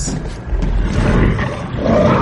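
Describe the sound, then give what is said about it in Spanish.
A large wolf charging at and breaking through a cabin door lets out a deep, rumbling roar, loud and sustained for about two seconds with a rough, growling texture and no voices present. “Sus rugidos resonaban terriblemente siniestros, como si fuesen palabras pronunciadas por una garganta humana.”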